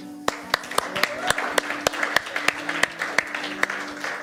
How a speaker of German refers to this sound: Und wenn du heute zum allerersten Mal hier bist, dann ist dieser besondere Applaus für dich.